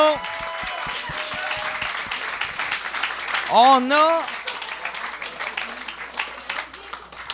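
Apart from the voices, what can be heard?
audience applause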